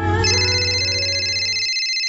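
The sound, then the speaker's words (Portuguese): A telephone rings with a loud, steady electronic tone rich in bright overtones, sounding alone for about two seconds before cutting off abruptly. “Eu tô ligando pra te contar que eu tô fazendo as compras lá no Mercado Pire.”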